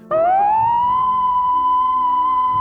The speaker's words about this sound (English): Will's slumber is interrupted by the wailing of Smith's alarm going off.